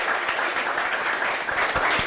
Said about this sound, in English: but being as though we're here at the wonderful North Tea Power, North Tea Power, round of applause for yourselves. We have an audience.